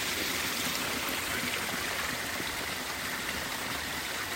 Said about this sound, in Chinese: 光是听这个流水声，就在旁边睡睡一下再走。